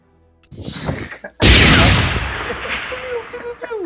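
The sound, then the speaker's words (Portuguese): Video-game gunfire heard from 20 km away: a brief rattle of shots, then one heavy blast that booms out and rolls away in a long echoing tail, with a faint voice murmuring underneath. “E os tiros agora vão a 20 km de distância.”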